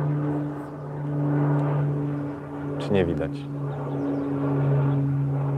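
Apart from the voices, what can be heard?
airplane flying overhead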